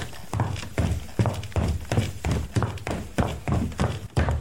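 Foley footsteps going down a staircase, about ten hollow thuds in an even rhythm, with no talking.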